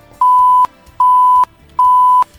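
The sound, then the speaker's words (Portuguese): Three evenly spaced electronic beeps at a steady pitch, each lasting under half a second, form a clear countdown alert signalling 10 seconds left before the end of a live interview, sounding alone with nothing else in the background. “ele ouve esse som e vai ouvir este som, esse alerta, faltando 10 segundos para o encerramento da entrevista.”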